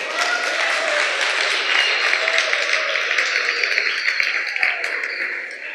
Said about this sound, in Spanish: Gracias, le podemos dar un aplauso